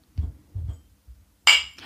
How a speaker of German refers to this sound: Lass uns erstmal anstoßen, bitte.